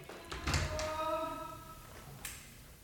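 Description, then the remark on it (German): A door opens: a click and thump, a brief rising creak of the hinge, then a softer knock as it swings to a stop. “Äh, also, äh, ich weiß ich mach mal die, kurz die Tür auf.”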